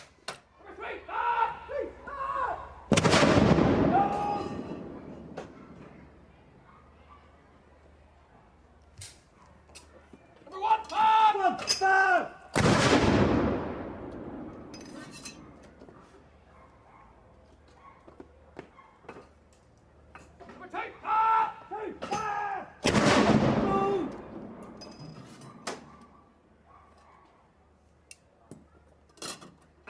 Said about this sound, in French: Ah, peut-être qu'on va écouter, pardonnez-moi juste ce moment, écoute canon et cérémonial